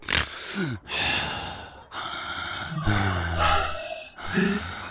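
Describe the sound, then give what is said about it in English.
A voice imitates heavy, loud breathing with a series of forceful gasps and snorts, each breath harsh and airy, filling about five seconds with no words spoken. “You just l- breathe loud. breathe loudly.”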